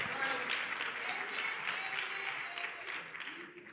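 An audience claps steadily for nearly four seconds after a point about teaching children the principle of tithing, a dense, crackling wash of many hands that stays loud throughout and only begins to thin out at the very end.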